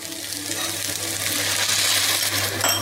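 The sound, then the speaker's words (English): More water pours steadily into a cooking pot of sautéed rice with green masala for a few seconds, a continuous splashing hiss with a faint low hum underneath and no voices. “Some more water.”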